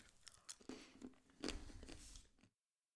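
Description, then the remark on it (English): Biting and chewing of a Ghirardelli dark chocolate square filled with sea salt caramel, with a few crisp crunches and soft, sticky mouth sounds over about two and a half seconds before falling silent. “Okay, and it is a dark chocolate square with a uh, caramel inside.”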